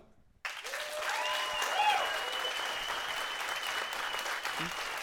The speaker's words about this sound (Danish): Øhm, så jeg tænker egentlig bare, at øh, alle, der har lyst til at høre min historie, de klapper nu.